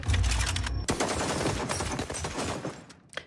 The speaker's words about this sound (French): Ça se passe porte de Clignancourt. Hmm. Mérine est abattue au fusil d'assaut hmm. après des mois de cavale.